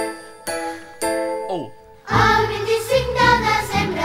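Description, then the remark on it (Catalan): Three evenly spaced bell strikes ring out, followed by a quick descending swoop, then a bright, full Catalan Christmas carol bursts in with jingling bells and lively instruments. “Aquesta és la insígnia del Nadal català. Qui no sap la lletra del 25 de desembre?”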